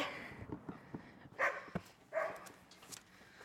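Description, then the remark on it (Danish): A dog gives two short, sharp barks about a second apart, followed by a fainter yip, against a quiet background with no talking. “Ikke, med, ikke når vi har hund, så det er fint.”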